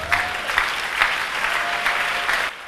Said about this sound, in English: Give the Lord a clap offering.